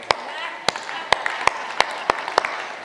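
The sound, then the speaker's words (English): A crowd at LifePoint slow-claps in unison to welcome people, about seven sharp claps spaced roughly half a second apart, with faint murmuring voices underneath. “Yes, just slow clap them in, though.”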